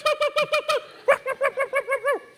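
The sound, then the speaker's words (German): A voice imitates a small dog's yapping: a fast run of five high-pitched yelps, a short pause, then about seven more evenly spaced yips, loud and with no other sound. “It barked like this.”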